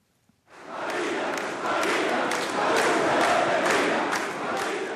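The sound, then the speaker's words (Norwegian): A large crowd at a political event in the presidential palace in Buenos Aires, Argentina, chants in unison "The Falklands are Argentine" as President Cristina Kirchner enters, with a steady, rhythmic beat, loud, dense massed voices rising and falling in regular pulses after a brief silence at the start. “Falklandsøyene er argentinske, ropte forsamlingen taktfast da Christina Kirchner gjorde sin entré under arrangementet i presidentpalasset her i Buenos Aires, omgitt av sentrale politiske medarbeidere, ledende militære og veteraner fra Falklandskrigen”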